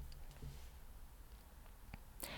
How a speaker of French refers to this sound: Alors, je suis sur euh, la page wiki. Vous allez entendre clic-clic. C'est mon ordinateur.